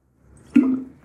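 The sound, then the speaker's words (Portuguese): A single wet slurp of water, as someone takes a quick sip, with a short squishy gulp that fades within a fraction of a second. No one speaks. “Ó, já começamos bem, já apelando pra aguinha.”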